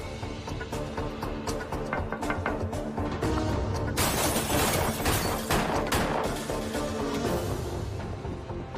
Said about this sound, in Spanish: El testigo escucha los disparos.